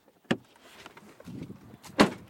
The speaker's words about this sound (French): Du coup, j'arrive chez le client, j'ouvre la porte. C'est un bar tabac assez spacieux.